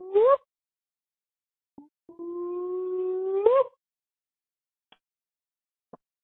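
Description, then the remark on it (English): Two loud, howl-like Bigfoot-style whooping calls left on a voicemail, with no one talking: a brief rising whoop, a pause, then a long sustained hoot that sweeps upward at the end, followed by a few faint clicks. “I think those were the legit whoops of a Bigfoot.”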